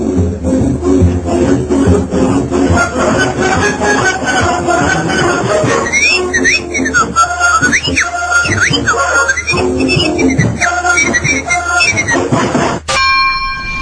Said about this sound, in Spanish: Y será el zorro que cerrará la emisión con el silbidito.